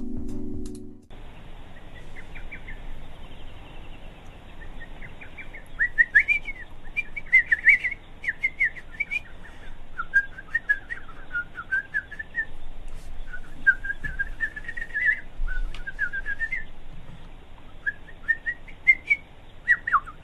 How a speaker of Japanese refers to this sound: ホトトギスってなんだっけえー、ちょっと、ホトトギスの鳴き声失礼するわ。